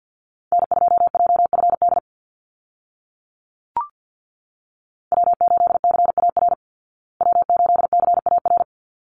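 Rapid Morse code call signs sent at 50 words per minute, each repeated three times, beeped in a steady mid-pitched tone in three quick bursts of dots and dashes separated by pauses, with a single brief click in the first gap.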